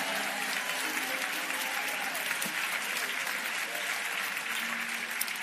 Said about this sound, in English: If you really believe you got this, give the Lord a shout and a praise real quick. You got this.